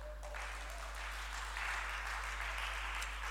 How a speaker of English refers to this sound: Let's give the Lord a mighty clap this morning.